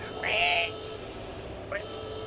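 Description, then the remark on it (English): A voice lets out a high, shrill squeal imitating a pig, rising then holding for about half a second, followed by a much shorter, quieter squeak a moment later. “Sounds like a pig.”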